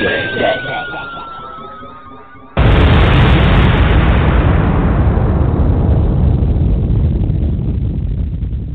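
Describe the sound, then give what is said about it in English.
An explosion sound effect: a falling whistle-like tone gives way to a sudden, loud explosion that erupts into a dense, roaring blast, then slowly rumbles and fades over several seconds, with no one speaking. “Was that back explosion the heart of Mike McCoy, Ray?”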